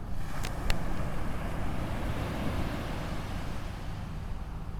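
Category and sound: nature, ocean waves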